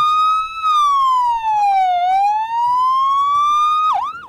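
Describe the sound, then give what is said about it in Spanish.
A loud ambulance siren wails in a slow continuous sweep, its tone gliding down and back up before a quick warbling yelp at the end, with faint road noise beneath. “Tan solo se escuchaban las sirenas de las ambulancias.”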